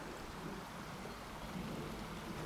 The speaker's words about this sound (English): Usually at this point, I would go over to the river, maybe stand there for a moment and take in the sound because, as you can hear, it's such a beautiful sound. The sound of water is just, I think, one of the, the most peaceful